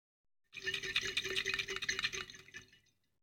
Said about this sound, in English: God, water effect.